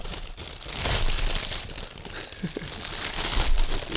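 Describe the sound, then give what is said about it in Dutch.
Gift wrapping paper crinkles and tears open in a steady, noisy rustle, with bursts of louder ripping and crumpling throughout the four seconds; no talking. “Niet zomaar een cadeautje.”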